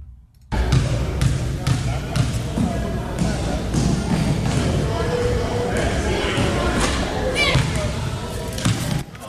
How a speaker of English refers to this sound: There's nothing quite like the sound of basketballs dribbling and shoes squeaking across a hardwood floor. That's the idea at the Gainesville Youth Co ed Basketball League held at the Martin Luther King Jr. Multipurpose Center.